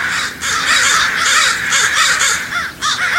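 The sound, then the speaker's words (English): A loud, dense chorus of crows cawing at a roost, many harsh overlapping calls filling the air continuously with no break. “Follow crows to their roost some autumn evening if you can, and watch these avian acrobats wheel in for the night.”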